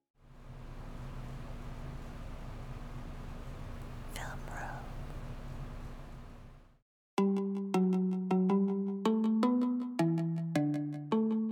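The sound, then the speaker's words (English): Faint whispering buried in steady recorder hiss and low hum plays back from a Zoom recorder for several seconds, then cuts off and a bright, melodic run of electronic chime tones follows. “Someone could have easily snuck back in here and just whispered”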